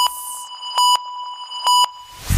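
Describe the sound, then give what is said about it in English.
A quiz buzzer sounds during a fastest-finger quiz round as a sustained electronic tone that punches out twice in quick double bursts, loud, with no voices, ending in a brief rush of noise. “Fingers on the buzzers.”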